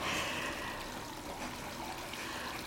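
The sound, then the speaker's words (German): A small tabletop fountain trickles steadily, a soft, continuous splashing and burbling of water with no pauses. It is fairly quiet, with no voices. “Viele finden das Wasserplätschern beruhigend.”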